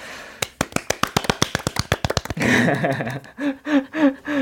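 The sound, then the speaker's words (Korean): Brief applause from a small audience, with people outside also clapping, after a live song performance: a quick run of sharp, distinct claps for about two seconds, then the clapping gives way to voices talking and calling out. “밖에서도 박수를 또 많이 쳐주셨는데요.”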